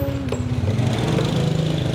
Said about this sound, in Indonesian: wow agak terhalang gitu guys perjalananku karena ada satu motor yang membawa banyak beban ada bola plastik celengan plastik